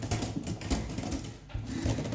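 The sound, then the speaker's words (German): Rapid, irregular clacking of typewriter keys, struck steadily, with a brief pause midway before the typing resumes. No voices. “Die Schreibmaschine fliegt auf jeden Fall weg in der zweiten Folge”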